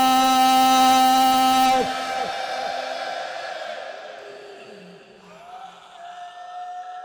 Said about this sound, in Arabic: أين الصارخون وأحصى أين الصارخون في هذه الليلة صرخة مدوية عالية